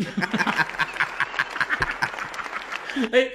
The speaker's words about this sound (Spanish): Te puse aquí a aplaudir. Gente aplaudiendo.